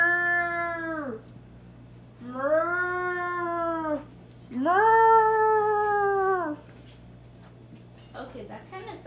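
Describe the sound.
A person imitates a cow as a contestant's talent, with three loud, drawn-out moos, each rising and falling in pitch with brief pauses between, and a short clatter follows.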